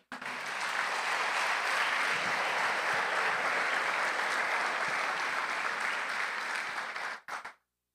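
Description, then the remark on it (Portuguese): A church audience applauds in praise of God with steady, dense clapping that holds at an even level for about seven seconds, then cuts off abruptly with a brief final patter. “Te louvamos com uma linda salva de palmas.”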